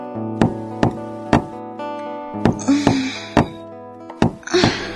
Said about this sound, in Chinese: 就在第二天晚上，我被一阵闷响的、有节奏的敲门声惊醒。